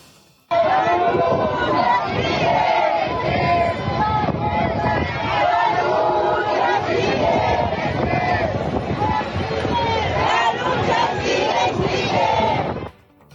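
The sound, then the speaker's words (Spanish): A large crowd at a protest march chants and shouts together loudly and continuously, the massed voices dense, cutting off abruptly after about thirteen seconds. “Vamos a escuchar lo que ocurrió en la marcha.”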